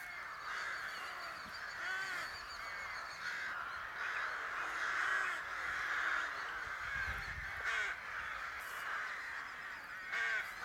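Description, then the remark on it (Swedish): A dense chorus of nesting rooks cawing continuously, many overlapping harsh calls forming a steady raucous din throughout, with no talking. “råkorna som låter så här, det är inte aftonfalkarna.”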